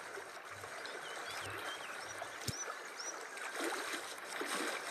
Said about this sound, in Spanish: Te despierta un sonido de agua lejano, así que curioso y un poco más animado, te levantas y retomas el camino. Ahora la vereda es muy diferente. Hay palmeras gigantes y el sonido del agua se acentúa en cada paso.